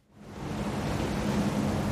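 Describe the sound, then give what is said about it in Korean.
A cold sea wind and breaking waves heard from the stern of a boat heading to Gapado island on a cloudy, windy day; the steady, loud rush swells in within the first half second, then holds as a continuous roar, with a faint low hum beneath it. “할머니, 바닷바람이 차요.”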